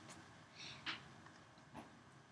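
A single short, fairly quiet sneeze bursts out partway through, followed a moment later by a softer breathy snort, over a faint steady background hum.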